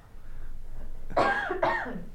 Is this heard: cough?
yes